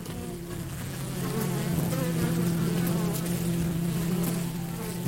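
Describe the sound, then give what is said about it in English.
Bees buzz in a steady, continuous drone, fairly loud, growing a little stronger after the first second and holding without pause. “But in the world of bees, there are unsung heroes that are responsible for more cross pollination than the famous honeybee.”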